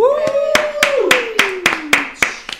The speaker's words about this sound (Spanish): Que, aplaudimos, güey